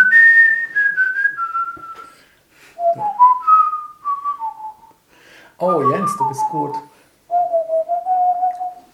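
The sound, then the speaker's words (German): Someone whistles a simple melody in clear, stepped notes that glide between pitches, with a short burst of speech breaking in partway through before the whistling resumes. “Ich kann es nicht gut nachflöten, aber es das ist was anderes.”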